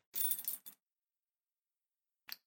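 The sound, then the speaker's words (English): A set of forklift keys for a forklift at Walmart jangles in a bright metallic rattle lasting about half a second, then after a pause there's one quick clink, with no one speaking. “These are forklift keys for a forklift at Walmart that I should not have in my apartment.”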